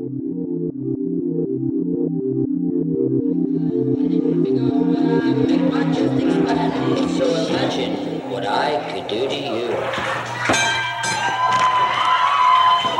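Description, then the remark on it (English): A wrestling match bell rings out sharply near the end, cutting through the loud, roaring cheers of a large crowd that swells steadily throughout. “Well, ladies and gentlemen, a bell sounds as you heard”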